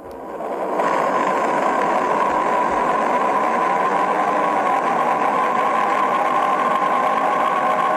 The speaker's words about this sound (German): Oder so, oder so hört sich der Saturn an. Hör mal.